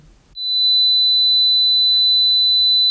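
A steady, piercing high-pitched tone, like tinnitus ringing, starts abruptly after a brief quiet moment and holds unchanged at constant loudness until the end.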